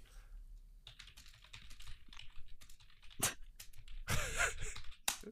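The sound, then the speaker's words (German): Quick clatter of keys being typed on a computer keyboard, an uneven run of taps with a few sharper, louder strikes near the end and no talking. “Ich muss kurz meine Tastatur bewegen, bedienen.”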